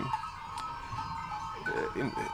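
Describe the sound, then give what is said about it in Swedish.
Hundreds of sheep at a place in Spain shuffle and mill about without bleating, a steady dense rustle of hooves and bodies at moderate loudness, with faint tonal sounds drifting through. “Det är liksom hundratals får som bara rör på sig.”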